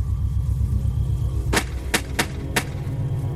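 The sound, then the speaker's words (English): Four sharp shotgun blasts of steel pellets crack out in an uneven rapid sequence at night toward the edge of a cornfield, each a loud, brief burst standing out over a steady low rumble, with no voices. “I sent four rounds of steel pellets right at it as it emerged.”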